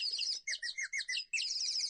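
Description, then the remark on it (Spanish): Birds sing in a lively, continuous stream of bright chirps and warbling phrases, with short pauses between bursts, clear, no voices present. “Por el contrario, nuestro príncipe era un hombre sensible que disfrutaba del olor de las rosas, el color del cielo al atardecer y la melodía de las aves.”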